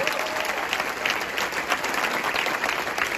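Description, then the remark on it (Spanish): An audience applauds steadily, a dense wash of many hands clapping at an even, fairly loud level throughout, with no talking over it. “Démosle ese fuerte aplauso papá, por favor.”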